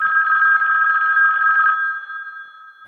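An old, dusty landline telephone that barely works rings with a steady, buzzing electronic trill, fairly loud, holding for almost two seconds before thinning and fading. No voices.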